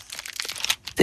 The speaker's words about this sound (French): Arrêtez avec les papiers de bonbons, ça s'entend.